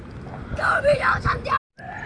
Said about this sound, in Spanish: Eh, lo que sucede es que yo tuve que cambiarme de lugar porque estos niños ya estaban gritando muy fuerte y creo yo que esto va a afectar el audio.